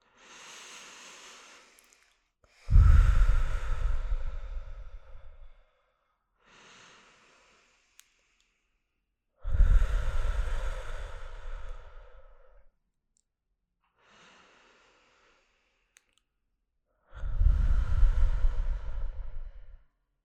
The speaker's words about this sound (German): Dann machen wir mit der Atmung weiter. Bei der Atmung, wir atmen jetzt ein paar Mal tief ein und wieder aus.